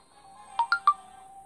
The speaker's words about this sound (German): Oh, warte. Mein Handy hat gerade geklingelt.